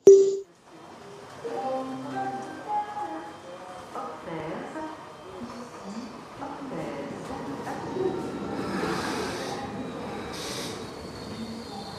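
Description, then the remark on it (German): A train pulls into a station, a steady rumble carrying high squealing brake tones, with bursts of hissing air toward the end as it slows. “Der Zug fährt ein.”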